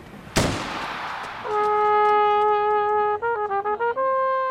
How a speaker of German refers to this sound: Als am 19. April 2005 in Rom weißer Rauch aufsteigt, antworten aus Martel am Inn die Böllerschützen.